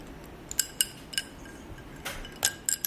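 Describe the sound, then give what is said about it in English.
Ice cubes clink against a glass while a Negroni cocktail is being mixed, in a quick, irregular series of bright taps, like a drink being stirred, with a faint background hiss between the hits and no talking. “Is this enough ice? Yeah, yeah, that's perfect.”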